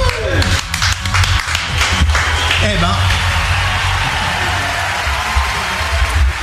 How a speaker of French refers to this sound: je mets les trucs euh, automatiques pour les applaudissements parce que c'est fatigant à la fin, toi.